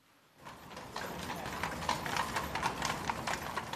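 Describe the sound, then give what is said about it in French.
Horse hooves clip-clop steadily on a paved street as a horse-drawn carriage full of tourists rolls down the Habsburg street in central Vienna, Austria, the sharp rhythmic clops loud over a busy background of street noise. “Dans le centre de Vienne, les calèches pleines de touristes descendent la rue des Habsbourg, puis passent devant la statue de l'archiduc Charles-Louis, direction la place dédiée à l'impératrice Marie-Thérèse.”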